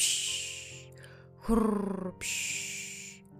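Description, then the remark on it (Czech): A voice imitates loud snoring: a long breathy hiss, then a rough, rattling snort in the middle, followed by another drawn-out airy exhale, fairly loud. “Po celém okolí jde slyšet jeho silné chrápání.”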